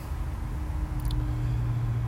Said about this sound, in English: Today is Thursday, the 22nd of April, 6:05 a.m., Melbourne, Australia. Can you hear the traffic?